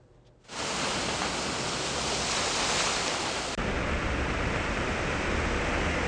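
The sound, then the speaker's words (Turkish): Floodwater from heavy, nonstop rain rushes through a street in Istanbul as a loud, steady roar that starts abruptly after a brief quiet moment and never lets up. Its tone shifts slightly partway through. No voices are heard. “Sele dönüştü yağmur.”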